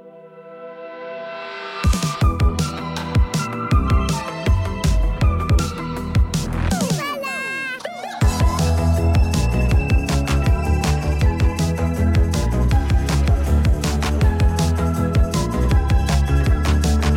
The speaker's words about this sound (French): merci beaucoup d'être venu et on peut lancer le générique.